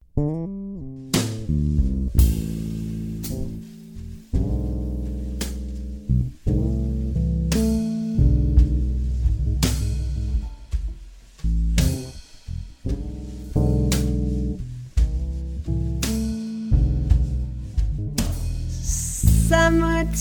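A performance of a song plays on its own: sustained melodic notes over a full, deep bass, with phrases breaking roughly every couple of seconds and no talking.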